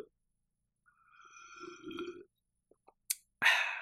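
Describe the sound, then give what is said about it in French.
A small sip of a caffeinated drink: a low, throaty gulping sound, a few soft wet mouth clicks, then a short breathy exhale after swallowing. No talking. “On passe maintenant donc, je vais prendre une petite gorgée de euh, caféine.”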